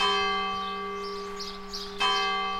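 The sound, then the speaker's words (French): A church bell rings at night with a rich, sustained hum that slowly fades, then sounds a second strike near the end. It is clear, with no voices. “j'entendais les cloches la nuit.”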